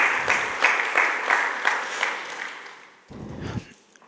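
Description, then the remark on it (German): A crowd applauds with dense, steady clapping that gradually fades over a few seconds, followed by a short burst of low murmuring or shuffling near the end. “Dankeschön nochmal, ich könnte ihm gerne einen Applaus geben.”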